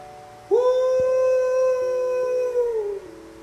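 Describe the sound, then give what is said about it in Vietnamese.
A single long, sustained dog howl, like a wolf's, rises sharply, then holds a steady wavering tone for about two and a half seconds before tapering off. It is loud and alone, with no talking. “đúng lúc đó cún vệ chu lên muốn như một con sói ma sói”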